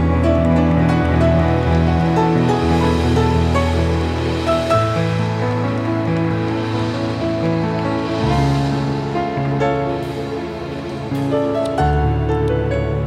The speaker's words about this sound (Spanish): Dale ese fuerte, fuerte aplauso al rey.